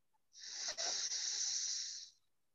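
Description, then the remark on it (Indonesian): A single forceful inhale through the left nostril during a breathing exercise, the right nostril pressed closed with the thumb; a hissing rush of air lasting nearly two seconds before it cuts off, with no talking. “Inhale kiri.”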